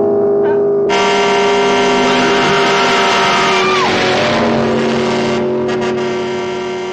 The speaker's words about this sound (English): Wait. I, I, I think I hear the engine of that damn car. Wait, it uh, sounds so weird.